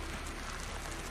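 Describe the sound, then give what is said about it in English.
Steady rain patters on a hard surface, a soft, continuous hiss of countless drops with no voices, fairly quiet and even throughout the short stretch. “What? Rain? Shit. Well, that's just perfect timing.”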